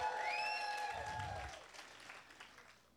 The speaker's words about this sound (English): Can I get a clap in the house?